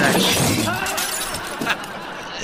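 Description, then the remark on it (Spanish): A loud crash in a multi-vehicle pile-up involving a trailer truck, with glass shattering and breaking debris, a dense burst of crunching and tinkling that keeps rattling for a couple of seconds, with a fresh smash partway through. “Y venía otro trailer y chocamos una carambola ahí.”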